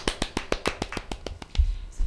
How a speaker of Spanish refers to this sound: Así que un aplauso para las chicas, porque la verdad es que